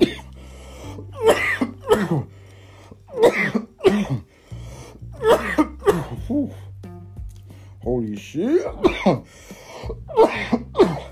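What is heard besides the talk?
repeated coughing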